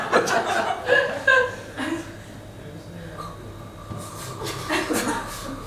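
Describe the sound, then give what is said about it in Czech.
A person imitates a Japanese macaque with a string of short, high, nasal calls and squeaks, mixed with bits of chuckling. “to je japonský makak.”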